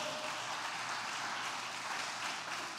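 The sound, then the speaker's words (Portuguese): An audience gives another round of applause, many hands clapping at once in a dense, continuous wash of sound that holds an even loudness for about three seconds. “Dá mais um aplauso a ele.”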